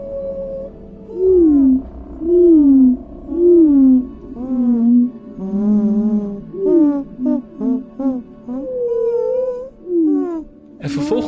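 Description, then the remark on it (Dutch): A human voice sings a string of sliding, warbling hoots and wavering notes, imitating slowed-down wren song; the phrases rise and fall in a quick melodic series, ending with a short sharp noise burst. “Nadat ik die vogels eh, vertraagd had, merkte ik dat ik het met mijn eigen stem kon gaan nazingen.”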